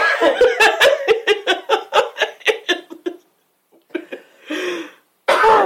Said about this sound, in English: Um, it's so funny you made me cough.